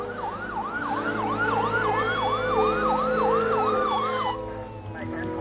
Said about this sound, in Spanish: Las sirenas de policía se escuchan en la lejanía. Las patrullas se acercan cada vez más a ellas.